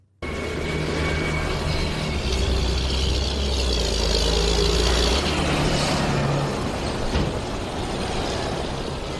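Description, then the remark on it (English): Tractors driven by protesting farmers rumble through the city centre of Prague, Czech Republic, in a protest over low produce prices and new EU environmental rules. Their heavy diesel engines drone loud and steady, with a deep low throb and a wash of traffic noise throughout and no voices. “That's uh, Prague, where farmers are driving tractors into the city centre protesting about low prices they're getting for their produce and new EU environmental rules.”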